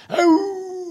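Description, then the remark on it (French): A person imitates a wolf howl in reply to howling wolves: one loud cry that swoops upward and then holds a steady, mournful tone, with no talking. “Oh, moi aussi, attends, je vais leur répondre.”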